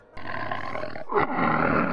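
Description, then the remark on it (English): A tiger roars loudly, a deep, rumbling growl that holds steady, briefly breaks, then swells again even stronger, with no voices around it. “Grrr, called the tiger as he burst through the door.”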